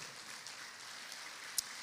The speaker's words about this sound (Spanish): Le da palmas al Señor. Le da palmas fuerte al Rey.